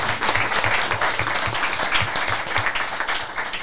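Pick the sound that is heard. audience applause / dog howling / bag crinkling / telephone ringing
audience applause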